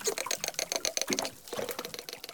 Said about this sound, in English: But now they've caught dolphins singing together too.